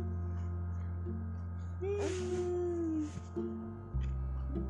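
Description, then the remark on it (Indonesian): A person imitates a cat with one drawn-out, wavering meow lasting about a second, heard over a steady low electrical hum. “tahu kalau kucing bunyinya gimana kalau kucing bunyinya gimana mia gitu coba”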